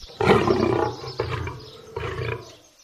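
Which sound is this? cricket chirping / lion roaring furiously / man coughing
lion roaring furiously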